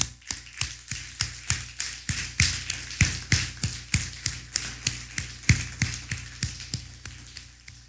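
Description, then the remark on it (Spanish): Applause for a viewer joining from Spain, in the form of steady, evenly spaced handclaps, roughly three per second, each sharp and crisp, continuing for about eight seconds with no voices. “Un fuerte aplauso a España también.”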